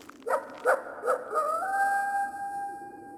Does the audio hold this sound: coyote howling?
yes